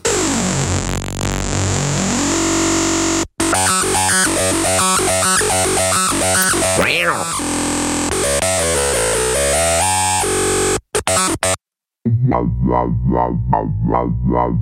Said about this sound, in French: Ce que je vous propose plutôt que de parler beaucoup, c'est de vous faire écouter l'ARP Odyssey d'origine. puis de, 72. de 72.